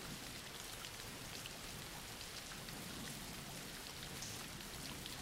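Steady rain falls without pause, a dense hiss of countless drops pattering on a surface at an even, moderate level, with no voices or other sounds.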